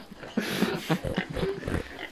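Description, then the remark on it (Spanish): Pigs oink and grunt in a quick, continuous series of rough, nasal snorts, fairly loud, with no talking over them. “Se han colado, se han colado por el estudio. Hay que eh, sacarlos, Carlos.”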